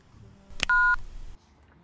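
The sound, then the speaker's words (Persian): A single steady two-tone telephone keypad beep as a woman dials her husband's phone number, loud and about a quarter second long, following a short click, with faint low background noise and no talking. “داشت شماره شوهرش رو میگرفت”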